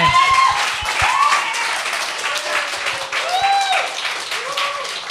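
Steady applause for a stand-up comedian, a dense wash of many hands clapping for about five seconds, with a few voices calling out and whooping over it at a rising, sliding pitch.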